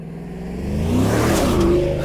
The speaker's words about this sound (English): oh god, that is a loud engine. Looks like he's heading out by himself this time.